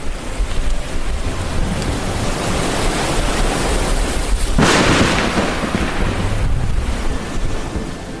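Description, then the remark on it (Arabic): Loud, continuous roar of rough sea and gusting wind filling the whole recording, with a surge of crashing surf around the middle and no voices. “عبرنا المحيطات وحاربنا قراصنة البحار واجهنا عاصفة بحرية كدنا نغرق سوية”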